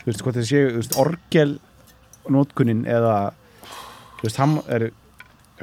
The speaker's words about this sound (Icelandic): ég er að opna bjór með gítarpetal